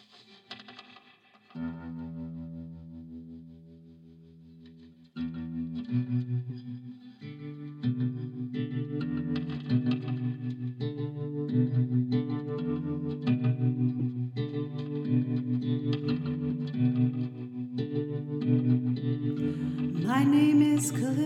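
A recorded song plays, opening with a thin, sparse intro before a warm, chorus-tinged bass and chord pattern enters and the music fills out into a steady, moderately loud groove with no audible voice.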